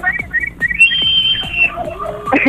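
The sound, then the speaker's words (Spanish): Several birds chirp and whistle in quick, overlapping calls, with a long high sustained whistle and short bright tweets scattered over a low background murmur. “Ey, es cierto, es cierto, allá están, es cierto, se escuchan.”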